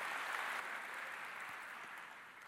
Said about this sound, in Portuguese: Ele pode aplaudir o Senhor. Pode aplaudir.